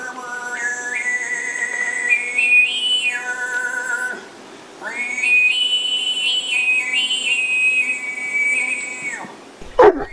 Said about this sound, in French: C'est une technique ancestrale développée par certaines cultures en Asie, en Inde ou en Afrique du Sud qui permet de chanter deux notes en même temps. T'entends là, il y a une note de basse et une mélodie aiguë, mais il y a un seul chanteur.